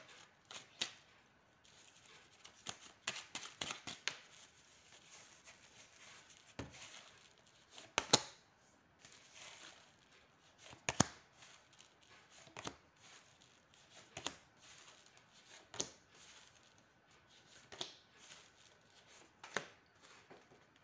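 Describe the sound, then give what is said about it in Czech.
Tarot cards being shuffled for a yearly tarot reading, a steady run of crisp riffling snaps and soft papery slaps with brief pauses between bursts, with no talking. “A já už se dívám na vaši fotku, míchám u toho karty a podíváme se teda spolu, jak se bude barvit to období 2022.”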